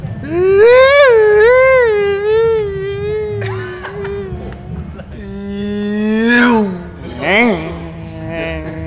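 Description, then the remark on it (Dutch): A voice imitates a passing car to illustrate the Doppler effect, holding a long, wavering, buzzy tone that rises in pitch, then swoops sharply downward as if the vehicle has just gone by. “Het als een, eh, als een auto voorbij komt. Oh, dat het geluid vervormt als het voorbij komt.”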